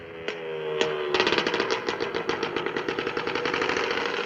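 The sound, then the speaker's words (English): A motorbike engine runs: two sharp blips of the throttle, then a steady, rapid putt-putt as it rides along, loud and rough with no voices; motorbikes carrying exchange students to a bar out in Hue. “Courtesy another few motorbikes, Jessie and her fellow exchange students plan to crash a bar out in Hue.”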